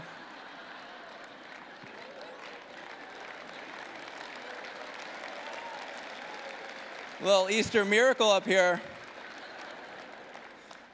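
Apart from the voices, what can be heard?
audience applauding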